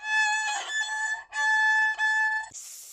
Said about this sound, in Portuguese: Conta-se que uma linda e brilhante floresta acordou de repente com um grito sibilante de uma cobra em apuros.